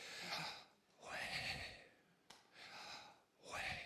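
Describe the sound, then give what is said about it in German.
Audible deep breaths, two slow inhales each followed by a long airy exhale, in a steady rhythm with no talking. “Und wenn du mal eingeatmet hast und ausgeatmet hast, dann merkst du es.”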